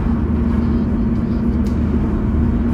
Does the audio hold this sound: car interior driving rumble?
yes